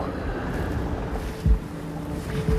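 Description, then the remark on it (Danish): A boat motoring slowly between icebergs toward two seals, its engine a steady low droning rumble with wind noise over it and two brief dull thumps partway through. No one speaks. “Vi sniger os hen mellem isbjergene og han sejler med lav fart hen mod de to sæler, der ligger og leger.”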